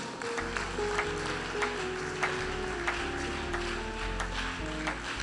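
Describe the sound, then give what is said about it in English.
An audience at a Christian worship service claps in praise in steady unison, sharp beats falling roughly twice a second over sustained organ-like chords and a deep bass hum, with no one speaking. “Clap your hands and give your praise, somebody.”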